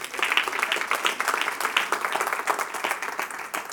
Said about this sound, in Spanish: Den un aplauso a nuestro Dios.